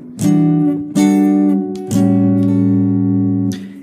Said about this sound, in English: This is 12, 14, 14, 12. And if you put a B under it, you get your your B minor 9 voicing.